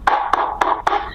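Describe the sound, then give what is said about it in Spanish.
Four dull knocks on a thick comic book of many pages, evenly spaced in a quick steady rhythm, fairly loud, with no voices. “No, prácticamente una puerta de madera.”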